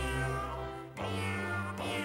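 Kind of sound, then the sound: animal, cats meowing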